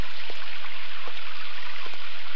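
Steady rain hisses down in a dense, even wash, with a few sharper drops pattering now and then, falling outside a protective canopy in a lush green jungle in the South Sahara that was once barren desert. No voices.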